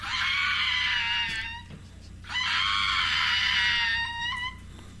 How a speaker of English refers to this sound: So I found this on the internet. This is a dog that sounds like a monster.